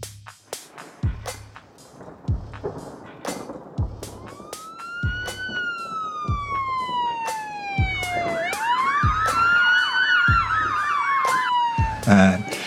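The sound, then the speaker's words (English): A police siren wails up and down, then switches to a rapid yelping pattern, growing steadily louder as it approaches, with a regular thumping beat pulsing underneath. “If you're in acute stress, which is a short term thing, suppose you're driving down the street and the police car comes behind you with all its lights flashing, and you go, oh, I'm being chased, or I'm, I, you know, and then it goes past you.”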